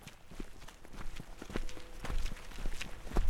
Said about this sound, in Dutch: We lopen naar buiten, het donker in en gaan in een kring staan.